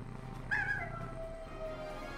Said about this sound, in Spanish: Los coyotes eh, aullan o coyotean.